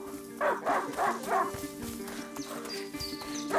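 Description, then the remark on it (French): Lion, a hunting dog, barks three times in a quick, uneven, loud burst, then falls quiet while a steady outdoor background hum continues. “Lion Attends-moi Lion Un chien de chasse n'est pas censé semer son maître”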